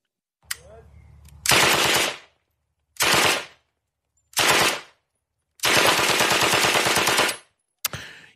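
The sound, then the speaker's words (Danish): A British Sten submachine gun fires several loud bursts of rapid automatic fire, some short and one long sustained burst, separated by brief pauses, with a single shot at the start and end. “Ja, og det vi hører her, det er en, øh, en Stingon, en øh, ikonisk britisk øh, maskinpistol, øh, blev affyret.”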